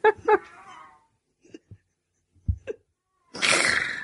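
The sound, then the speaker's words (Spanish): A cat gives a couple of quick yowling cries, followed by a few soft knocks and then a loud, breathy, hissing burst of noise. No one is talking. “me cago en el puto gato de los cojones.”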